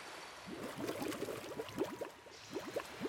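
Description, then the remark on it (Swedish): Lake water suddenly bubbling steadily, with a dense stream of small rising blips and gurgles at moderate volume, continuous throughout with no voices. “Men så började vattnet plötsligt att bubbla och det var verkligen inte normalt.”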